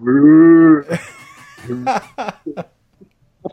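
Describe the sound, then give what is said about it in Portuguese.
A person imitates a cow with one loud, drawn-out, low moo, followed by a few seconds of quick chatter. “Uh, é, ela disse que na hora que eu baixei as calças, as vacas começaram...”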